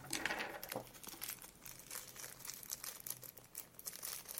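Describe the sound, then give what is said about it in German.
A plastic bag crinkles and rustles steadily, with irregular bursts of crackling as four mini screws are pulled out of it one by one. No one speaks. “Ich pull sie mal einzeln aus der Tüte raus.”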